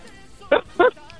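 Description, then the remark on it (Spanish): A child's voice gives two short, sharp barks in imitation of a puppy, evenly spaced and fairly loud against a quiet background. “Oye, ¿tú me puedes hacer el ruido de un perrito?”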